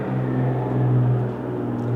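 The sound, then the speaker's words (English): An airplane flying overhead produces a steady, low droning rumble with a faint humming tone, holding fairly even in loudness for the whole stretch, with no voices present. “Thank you, airplanes”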